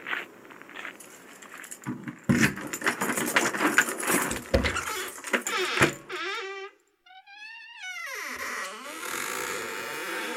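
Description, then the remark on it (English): Keys jangle and clink in a busy, rattling burst for several seconds, mixed with footsteps, followed by a series of rising and falling chirping tones. “Grab your keys, mate.”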